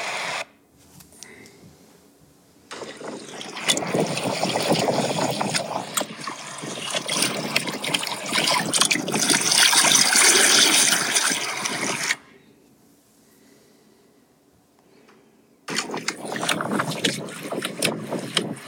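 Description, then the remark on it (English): Water rushes and trickles around a small boat as a person floats downriver to fly fish, in long loud stretches broken by a quieter lull, with some wind buffeting the microphone. “That's just the sound of me floating down the river.”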